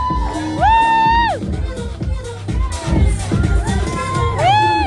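A crowd cheers loudly and steadily as a woman is called up and comes out, with high rising whoops and whistling shouts soaring over the broad roar of voices, swelling again near the end.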